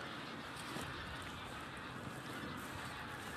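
A flock of geese honks as it takes off at Andøya, geese on their way south from Svalbard; their calls blend into a steady wash of wind and outdoor noise with no clear individual cries standing out.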